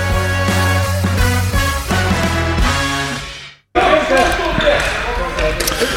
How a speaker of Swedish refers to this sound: Ja, välkomna till eh, Sportsnack som den här eh, eh veckan spelas in på Solfjällstorens träning. Vi hör... Eh, det är innebandyljud.